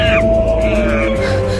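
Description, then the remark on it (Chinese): A big troop of monkeys in the Shennongjia primeval jungle calling: one loud, sustained high cry that slowly slides downward, over a dense wash of overlapping noise, with a brief sharper squeal at the start and no talking. “你们看，一大波猴子过来了！”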